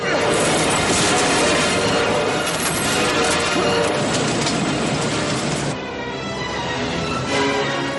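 A train from the film The Fugitive roars in at full speed as the surgeon Richard Kimball tries to escape the crashing train: a dense, loud rumble with grinding metallic crashing layered through it, then the din eases slightly near the end but keeps churning.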